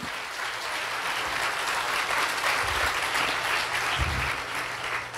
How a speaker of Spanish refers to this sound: Si es para el Señor el aplauso, dáselo bien.